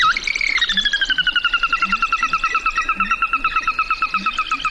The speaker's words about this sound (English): Willets, wrens, shovelers, and a variety of ducks greet the day at a marsh in North Dakota. Lang Elliott captured their wake up call.